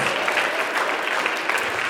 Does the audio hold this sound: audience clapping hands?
yes